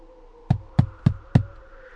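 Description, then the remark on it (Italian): Four sharp knocks on the stage door of the Teatro Bisognosi in quick, even succession, fairly loud, with a faint steady hum in the background and no voices. “Chi è che bussa? Chi è?”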